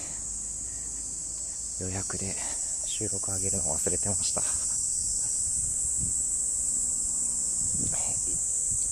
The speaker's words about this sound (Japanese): セミがうるさいセミがうるさいこのセミもね1週間ぐらいの命ということで、いや、もう声を限りに泣いているわけなんですけれども、セミが鳴いているのを聞くのも何年ぶりかな。